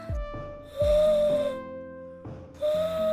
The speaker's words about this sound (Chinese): 他们坐在山顶，一边欣赏着美丽的风景，直到月亮渐渐升起，猫头鹰也开始咕咕地叫着。